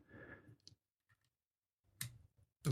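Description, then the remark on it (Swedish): A few sharp clicks from mechanical keyboard switches that have no keycaps, pressed irregularly, with quiet gaps and a low background rumble between presses. “och eftersom det här är då ett riktigt sånt nördtangentbord så har jag själva tangentbordet, jag har tangentbords-switchar men jag har inte själva tangentbords, vad, vad säger man, eh, keycaps på svenska?”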